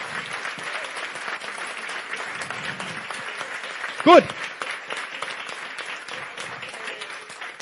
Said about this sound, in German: Ich möchte noch mal einen ganz großen Applaus für die Dame haben